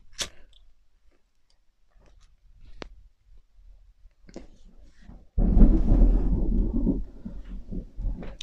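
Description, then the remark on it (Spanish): After several quiet seconds with a few faint clicks, a loud, deep rumble of thunder bursts in and rolls for about two seconds before tapering off, while it is drizzling and about to rain. “Pero fue un trueno.”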